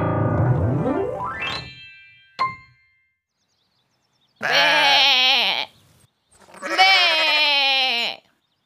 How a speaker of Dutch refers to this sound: Oei, zegt Lou. Wie roept daar zo hard? Het is een schaapje, Lou, ja, dat wist ik, Lulu. Schaapjes doen be.